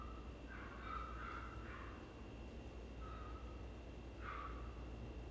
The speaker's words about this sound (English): oh, that's a dog outside. I was like, what is that noise?